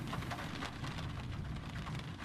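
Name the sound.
rain falling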